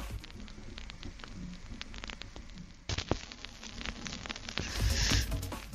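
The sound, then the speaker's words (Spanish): Soft vinyl record crackle as a needle plays an LP: scattered clicks and pops over a low steady hiss and hum, with a brief bump near the middle and the surface noise growing a little louder toward the end. “reconocen ese audio tecnostálgico a la hora de... Exactamente bajar la aguja y ponerla en el vinil, en el acetato, en el LP”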